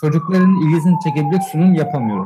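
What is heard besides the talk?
ambulance siren passing outside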